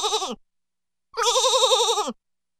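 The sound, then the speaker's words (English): Lambs bleat twice in cold, snowy weather: a short clipped call, a pause, then a longer quavering bleat with a shaky, trembling tone. No one speaks. “Lambs, my brother shouts.”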